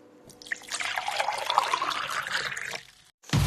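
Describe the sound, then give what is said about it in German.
Boiling hot water is poured into an ordinary drinking glass in a steady trickling stream that rises in pitch as it fills, lasting about three seconds, then a brief pause followed by a sudden sharp crack as the glass bursts from the heat. “Wenn man da kochend heißes Wasser einschüttet, schauen, was passiert.”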